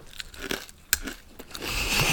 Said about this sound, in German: Aber vielleicht hier so den Keks, wie man ihn so aufbricht. Stimmt, um, ganz langsam. Die Hälfte ist runtergefallen. Sollen wir jetzt auch ein ganz leises, langsames Knuspern machen?